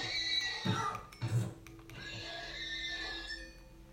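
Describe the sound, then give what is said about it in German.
A video game horse, one of two that just spawned, neighs: two short, throaty whinny bursts followed by a longer, high, wavering tail, clear with no talking over it. “Oh, und wenn ich gerade einen Screenshot machen will, spawnt dann Spawn da zwei verdammte Pferde.”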